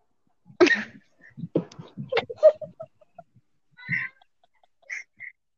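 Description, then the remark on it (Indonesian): Jungle fowl caught in a snare, in a YouTube video, clucking in a quick, irregular cluster of short calls, followed after a pause by a few softer, higher clucks, all moderately quiet with no talking. “ayam hutan dijerat tam, terus judulnya gini cara menangkap ayam hutan dijerat tanpa edit”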